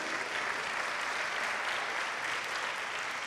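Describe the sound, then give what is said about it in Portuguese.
An audience applauds steadily, a dense, even wash of many hands clapping at once that holds a constant level for the whole few seconds, with no voices standing out, giving applause to the Lord Jesus. “Então, quando a palavra diz, quero dar um aplauso, por favor, ao Senhor Jesus.”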